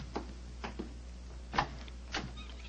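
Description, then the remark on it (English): The handle of an unlocked door is rattled and tried several times in short, uneven bursts, then a sharper latch click as the door gives way, all over a steady low hum with no voices. “Come on, let's try this door.”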